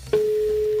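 A telephone ringing tone on the line as a call rings through to a woman's mobile phone: a steady, mid-pitched electronic beep that starts after a brief moment of line hiss and holds evenly to the end, with no talking.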